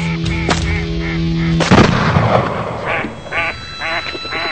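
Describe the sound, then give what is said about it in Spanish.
Two loud shotgun blasts ring out, a sharp crack followed by a heavier booming shot with a rumbling tail, then a series of nasal, honking duck or goose calls. “Tirando a las escopetas.”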